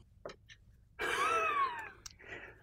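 A single drawn-out bird call, a fairly loud squawk lasting about a second that bends downward in pitch, with a few faint clicks before and after.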